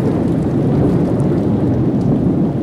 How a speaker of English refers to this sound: as we ride on through the storm here.